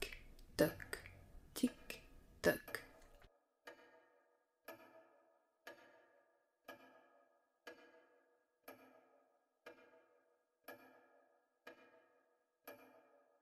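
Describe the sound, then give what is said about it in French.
A clock ticks steadily, one crisp, ringing tick about every second, fairly loud. A brief jumble of other sounds comes first, then the ticking carries on alone. “Derrière lui, l'horloge de son père comptait le temps, narquoise. Tic,”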